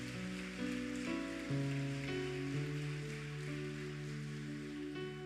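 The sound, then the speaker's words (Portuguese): A church audience claps steadily to applaud the Lord in a dense, continuous wash of applause, while sustained keyboard or organ chords shift underneath. No one speaks. “Quantos podem aplaudir o Senhor? Aplauda o Senhor. Aplauda mais forte o Senhor.”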